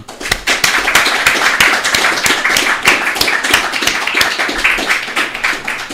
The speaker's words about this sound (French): et je crois que nous devons vous en remercier beaucoup. Donc je vous demande, j'aimerais bien vous applaudir.